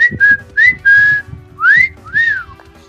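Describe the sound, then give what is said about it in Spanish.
A person whistles a series of short, bright notes, some held flat and others sliding up and down in pitch, in a quick, calling pattern lasting a few seconds: an OSS agent whistling to draw the attention of Nazi guards. “Pues aquí el, señor este, agente de la OSS pues le da por chiflarle a los, a los guardias nazis, ¿no?”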